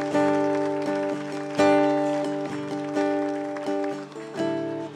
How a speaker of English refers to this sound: Give the Lord a big hand clap if you would this morning.